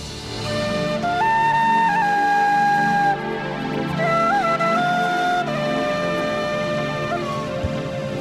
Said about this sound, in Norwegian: Det er uh, fløyta til Gaute Grøtta Grav, holdt jeg på å si. Det er, uh, det er Farmen.